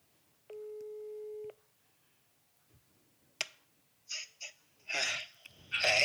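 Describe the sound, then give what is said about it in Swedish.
A single steady telephone ringback tone from an outgoing call to a father sounds for about a second, fairly clear, then stops; sharp clicks and short breathy, rustling bursts follow with no talking. “Jag ringer min pappa.”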